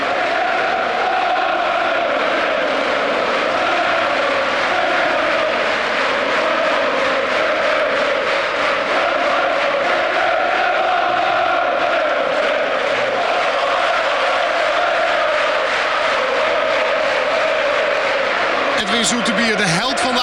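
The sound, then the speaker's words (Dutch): Football supporters in a stadium roar and cheer continuously, a dense, sustained wash of voices that stays loud and steady throughout, with a brief shift in texture near the end. “Edwin Zoetebier die eh, vooruit kijkt en ook eh, toegejuicht wordt.”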